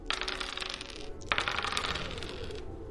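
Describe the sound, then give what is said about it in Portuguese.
Dice are rolled in a tabletop role-playing game, a check against a score of 13 to see if a character stays conscious; they rattle and clatter across a hard surface in two bursts, a brief one followed by a longer tumbling roll, bright and fairly loud with no voices. “Agora rola para ver se você ainda saiu consciente.”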